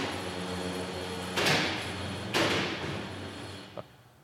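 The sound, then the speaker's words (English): A sliding door rumbles open as someone walks in on an interview in progress, with two broad whooshing surges a second apart, followed by a small knock as it settles, over a steady low background hum. “They were supposed to put a note up on the door.”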